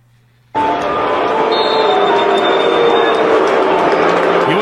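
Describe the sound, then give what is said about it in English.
A huge stadium crowd at Bank Stadium boos loudly and steadily after a pick six is thrown, a dense wall of sustained voices that bursts in abruptly after a brief quiet moment and keeps going without letting up. “Bank Stadium is not booing that play. They're booing the fact that we've thrown a pick six.”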